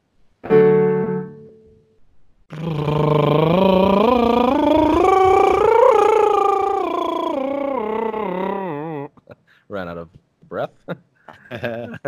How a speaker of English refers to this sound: Think, do the lip bubbles and think uh, uh, behind the lip bubbles think the R valve behind the lip bubble. And as you go up, don't change the shape at all.